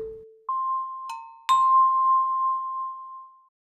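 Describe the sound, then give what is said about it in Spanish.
A wooden spoon taps water-filled glasses played like instruments, the water level changing each tone: a low ringing tone and then a higher one, with two more clear strikes making the bright note ring on and fade. No talking. “Usa una cuchara de madera y toca los vasos como instrumentos para escuchar los diferentes tonos que emiten.”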